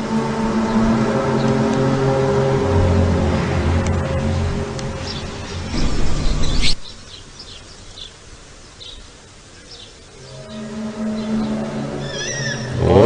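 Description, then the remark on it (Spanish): Eerie, droning trumpet-like blasts, recorded in Ukraine, sound from the sky: a long loud layered groan, an abrupt drop to near quiet, then the brassy tone swells back in, with faint chirps overhead. “Pero ahorita les quiero poner el sonido de las trompetas justo del universo que se han escuchado, por ejemplo, en México.”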